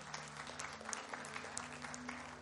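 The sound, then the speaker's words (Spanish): A steady burst of audience applause at a church, many hands clapping densely and continuously at an even loudness for a couple of seconds, with a faint low hum beneath it. “Le damos un aplauso a nuestros hermanos por su compromiso.”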